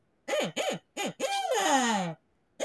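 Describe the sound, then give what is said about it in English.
A handheld hunting owl call is blown: two short hoots, a third, then a long wavering descending hoot, and another starting at the end, with no talking. “Here's my owl call.”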